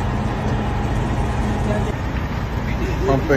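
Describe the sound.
Gas pumping into an RV at a filling station, almost 100 gallons, heard as a steady, loud low rumble and hiss with engine and traffic noise, and a brief voice near the end.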